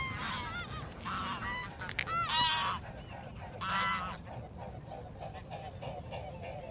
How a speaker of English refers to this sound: pair of swans fly over a gaggle of geese.